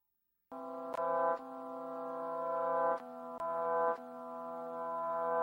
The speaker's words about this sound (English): I like the original, so we're gonna listen to the original. And this is again … by …